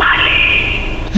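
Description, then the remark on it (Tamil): A voice imitates a steady, breathy whooshing like wind coming from behind, one continuous hiss lasting about a second, fairly loud, ending with a brief voiced sound. “அப்புறம் திருப்பி வந்து உட்காந்த கையோட அது வந்து ஒரு பின்னாடில இருந்து ஒரு ஒரு காத்து மாதிரி ஒரு சத்தம்”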